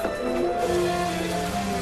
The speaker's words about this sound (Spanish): Adalberto camina bajo la lluvia.